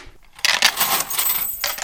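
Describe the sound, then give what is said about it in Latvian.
Counting dice, used as a sound prop in a radio theatre studio, tumble and rattle across a surface for over a second in a bright clatter with quick irregular clicks, heard on their own. “Skaitāmie kauliņi”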